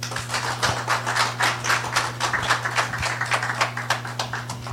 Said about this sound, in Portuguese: Então, por favor, ajudem-me a receber com uma calorosa salva de palmas